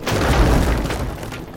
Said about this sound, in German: Plötzlich wird etwas aus der Seite des Hubschraubers herausgeworfen. Es ist eine Palette mit Wasserflaschen, die beim Aufprall überall auf dem Boden platzen.